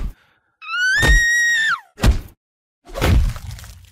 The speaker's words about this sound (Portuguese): Eu pude ouvir uma mulher gritando no fim do corredor, seu choro aumentando enquanto algo carnudo batia contra ela.